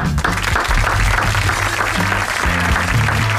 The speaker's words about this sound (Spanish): Los aplausos que explotan en la sala.